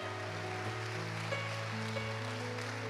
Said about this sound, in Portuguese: Então vamos aplaudir esse Deus que nos conhece, que sabe que somos fracos e que precisamos de um bom pastor.